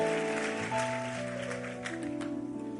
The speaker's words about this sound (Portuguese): Aplauda ele, vamos ficar em pé.